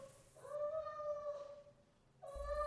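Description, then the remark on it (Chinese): A soft, drawn-out cat meow with a gently wavering, falling tone, followed by the start of a second meow; no one speaks over it. “我忽然听到一阵很温柔的猫的叫声”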